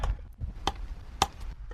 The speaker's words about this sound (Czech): Teď jsme uřízli dva kousky hmoty šedivé.